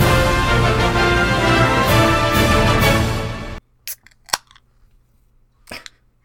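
A cold beer can cracked open, recorded live: several seconds of steady, dense fizzing noise stop abruptly, followed by three sharp metallic clicks and snaps with short quiet gaps between them, and no voices.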